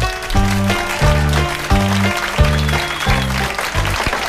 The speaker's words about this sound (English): I want to start off this morning by giving you a, a little round of applause here, if you may.